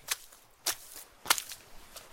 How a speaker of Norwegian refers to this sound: Det er den deilige lyden av slaps, det. Snø og regn samtidig. Jeg er ute og går i skogen, for da kan jeg få litt le fra trærne.